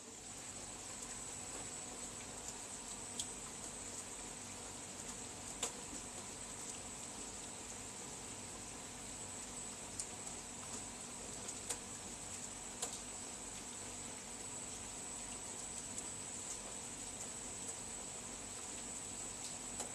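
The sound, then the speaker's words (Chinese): Soft, steady rain hiss recorded on a phone held out of a window, with a few sharp drip-like taps scattered throughout, over a constant high, thin insect-like drone. Quiet and even, with no voices. “来，我们接着听雨。”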